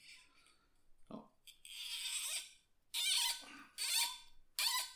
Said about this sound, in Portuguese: Vamos tentar abrir, vamos tentar ter aqui este fantástico som de uma rolha desfeita, que é a experiência que eu tenho com este vinho.